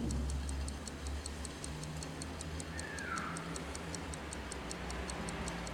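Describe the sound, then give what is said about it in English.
An alarm clock on a table ticks steadily and quickly, each crisp click evenly spaced, quiet but insistent over a low hum, with no voices present, in a film scene by director Mungiu. “In the meantime, Mungiu has placed nearby on the table a quietly but urgently ticking alarm clock.”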